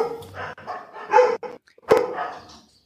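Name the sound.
dogs barking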